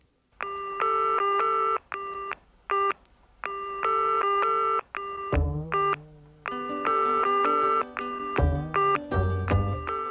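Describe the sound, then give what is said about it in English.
A telephone in England, while calling someone, rings and gives a busy signal at the same time, layered electronic tones pulsing on and off in a steady, almost musical rhythm, clear with no voices. “It rang and gave a busy signal simultaneously.”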